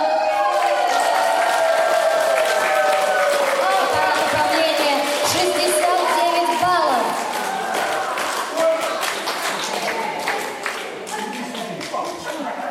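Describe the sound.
Sustained audience applause at the results of the "Musical Erudite" quiz at the Shevchenko cultural and leisure centre, a dense wash of many hands clapping, continuing steadily for the whole stretch with voices and crowd murmur mixed in underneath.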